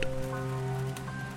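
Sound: heavy rain beating down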